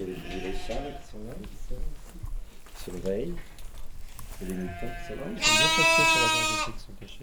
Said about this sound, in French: c'est des moutons, tu vois. Les jeunes moutons.